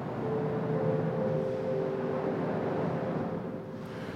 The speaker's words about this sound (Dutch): Wat is dat geluid eigenlijk wat we horen? Auto's. Zijn het auto's? auto's. Dat gaat de hele dag door. 24 uur.